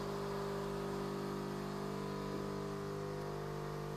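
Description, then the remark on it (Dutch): A coffee machine runs steadily, putting out a loud, constant mechanical hum with a droning whir that holds unchanged for the whole stretch, with no voices. “oh, een koffiezetapparaat.”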